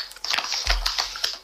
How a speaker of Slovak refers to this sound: trošku menej uh, šušti s papiermi, lebo to praska veľmi citlivý máš mikrofón. Hej, hej. Uh-huh. Lebo neviem ako je, lebo ja tým, že mám sluchatka, tak e, e, to tak nebadám.